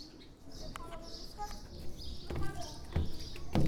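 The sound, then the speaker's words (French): Outdoor ambience in the garden of the premises of the Enfants de la Goutte d'Or, 25 rue de Chartres in the 18th arrondissement. Birds chirp intermittently, mixed with faint voices and occasional soft knocks or rustles. “Et on commence par le jardin.”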